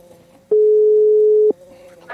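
A single one-second telephone ringback tone, steady and loud, heard while a phone call to an expert is being placed, with faint background hum before and after.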